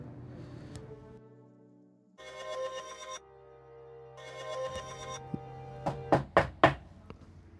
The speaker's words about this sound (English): Knock, knock. Jess, honey, it's your dad. Are you okay? Open the door.